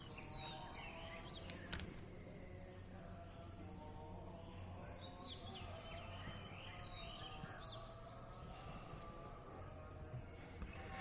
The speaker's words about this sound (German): Wenn Sie sich dann für Sri Lanka entschieden haben, dann werden Sie früh, wie hier in der Anlage Mutsumi Ayurveda Beach Resort in Beruwala, mit diesem wunderbaren tropischen Vogelkonzert morgens geweckt. Wir hören mal rein.